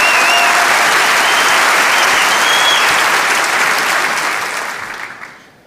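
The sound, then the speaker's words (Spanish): An audience at a live show breaks into loud, sustained applause for two people who have just come in. It is a dense crackle of many hands clapping at once, with a few brief whistles early on, before tapering off in the last second. “Un aplauso para ellas.”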